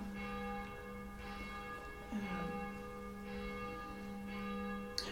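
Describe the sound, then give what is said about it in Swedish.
Church bells ring steadily, their sustained, overlapping tones forming a continuous metallic hum, with a brief murmur of a voice over them. “Och nu kanske kyrkklockorna hörs i podden.”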